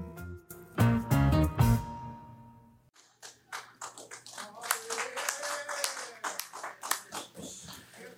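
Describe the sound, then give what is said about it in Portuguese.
A quick run of sharp hand claps rings out early, overlapping a fading musical tone, then people start talking with a few scattered claps beneath. “Espero que essas palmas não sejam deboche.”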